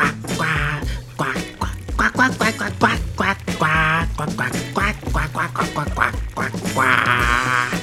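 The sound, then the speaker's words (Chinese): A loud, continuous chorus of ducks quacking in celebration at a duck lake, many nasal calls overlapping in quick, uneven bursts for the whole stretch, with no talking. “所有的鸭子都在跳舞、跳舞、唱歌、跳舞、唱歌，还把咕叽咕叽呢抬起来，欢呼、开心的、热烈的庆祝哦！呱呱呱呱呱呱呱呱呱呱呱呱呱呱呱。”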